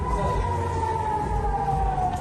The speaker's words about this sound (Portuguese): No começo da noite, sirenes soaram pela primeira vez na capital Tel Aviv em sinal de alerta para a população se proteger contra o fogo inimigo.